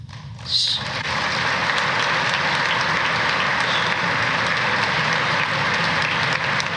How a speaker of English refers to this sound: Oh, and they're up there. The whole Congress is applauding like uh, like trained seals.